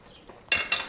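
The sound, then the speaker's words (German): Glass preserving jars, used for homemade quince jam, clink together twice in quick succession, each knock bright and ringing with a short high-pitched tone, following a moment of near silence. “regelmäßig und ähm, der braucht diese, also der füllt das halt immer in diese Gläser hier rein.”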